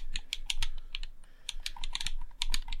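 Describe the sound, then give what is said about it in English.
Rapid, irregular plastic clicks from an Xbox controller D-pad being pressed repeatedly, crisp, about a dozen or more sharp taps with no talking. “Also, I do like the D pad on the Xbox. People say it's it, they don't like the tactile nature of how it sounds.”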